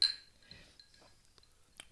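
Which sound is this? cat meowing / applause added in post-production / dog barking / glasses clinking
glasses clinking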